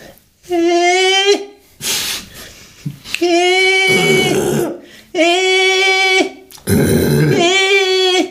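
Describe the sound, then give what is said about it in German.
A person mimics an alpaca's call with their voice, repeating a sustained, tonal hum that alternates with rough, breathy bursts. Loud, about four cycles with no other talking. “Und diese Alpakas machen ein Geräusch, klingt irgendwie so.”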